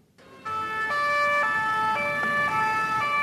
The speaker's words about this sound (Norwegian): Utenfor kontoret til Charlie Hebdo kjører ambulansene fra åstedet.